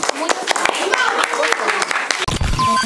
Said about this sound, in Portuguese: O que, que elas merecem? Palmas.